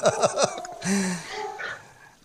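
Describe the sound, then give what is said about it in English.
A dog, Hopper, barks three quick, yappy times in a row, then lets out a longer, lower drawn-out bark or whine that trails off, at moderate volume with no talking. “Can you hear Hopper barking?”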